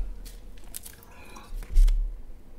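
Someone takes a sip of mineral water: quiet wet slurping and mouth noises, then a swallow and a soft low thump near the end, with no talking.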